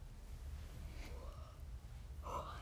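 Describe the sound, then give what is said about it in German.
A quiet yawn, early in the morning: a breathy intake that swells into a drawn-out, faintly voiced exhale, over a steady low background rumble. “Muss, aber ich muss einfach die ganze Zeit gähnen.”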